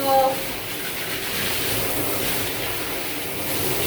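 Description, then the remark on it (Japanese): Hot water at 60 degrees sprays steadily onto an air conditioner filter to rinse off dust, a continuous hissing rush that holds at an even level for the whole stretch with no talking. “どうせだったら熱い方がいいかなと思って60度にしてみました熱湯気がでこのフィルターをできるだけここりを流すよいしょ”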